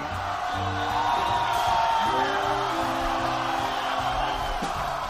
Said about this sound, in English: Now, ladies and gentlemen, let's give a big hand for …, …, …, …. …, ….